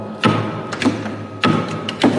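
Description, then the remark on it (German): Knocking on a hollow panel as a secret entry code at an entrance door: several dull taps in two uneven clusters, some firmer thuds mixed with lighter raps, with no talking. “wo man wusste, dass man die hereinlassen soll, dann wussten die, dass Geheimcode zum Eingang ist, wenn sie hier, das ist hier ein Hohlraum,”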